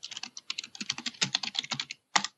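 Rapid, loud clacking of a computer keyboard as someone types quickly, a dense run of keystrokes followed by a short pause and a final burst.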